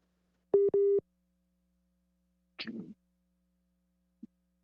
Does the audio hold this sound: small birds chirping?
no